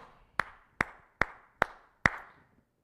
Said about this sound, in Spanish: Y si me lo permiten, quiero aplaudirle y volverle a aplaudir